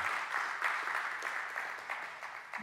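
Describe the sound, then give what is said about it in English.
A crowd claps steadily, a dense, even patter of many hands with no voices, holding at a fairly constant level for a few seconds. “I want to applaud you.”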